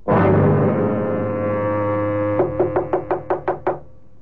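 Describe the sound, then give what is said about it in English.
A loud, sustained low horn-like tone fades, then a quick, even series of about eight sharp, crisp knocks rings out on a door. “Oh, madam, I had no idea this was your door.”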